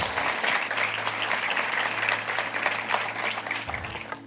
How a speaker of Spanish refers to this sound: Le damos un aplauso a la palabra del Señor. Muchas gracias.